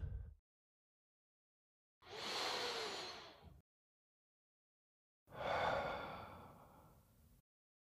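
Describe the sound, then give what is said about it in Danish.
Two long, deep breaths in and out, taken to settle into the body, each a broad airy rush lasting over a second, separated by silence; the second has a slightly rougher, sighing exhale quality. Fairly loud. “og start med at tage nogle dybe vejrtrækninger for at komme ned i kroppen.”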